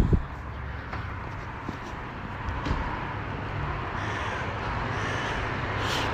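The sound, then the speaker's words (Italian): A crow caws several times over a steady, rumbling street background with traffic noise, outdoors on Viale della Repubblica in the early morning. “Cornacchia che mi saluta, ciao, buongiorno a te.”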